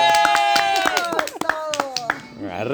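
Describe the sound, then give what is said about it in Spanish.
Audience applause for the show Don Comedia: a steady run of sharp claps, roughly three or four per second, mixed with a loud, wavering tonal sound like cheering voices that keeps sliding in pitch. “Aplausos, por favor.”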